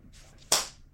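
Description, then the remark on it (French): A single sharp, loud hand slap, like a smack across the face, follows a faint brushing swish, then rings out briefly into quiet. “Une bonne gifle, une bonne tarte.”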